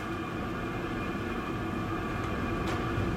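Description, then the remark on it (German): A steady, dense mechanical rumble of a millstone crushing grain in a mill, continuous, with a low churning texture and faint hiss throughout, no voices. “Ich mag besonders gern das eigentliche Rauschen des Mahlsteins, das eigentliche Geräusch, wenn, wenn der Stein die Körner zermalt, das hat was Singendes, weil der Stein so einen, so einen hellen, klaren Ton dabei gibt.”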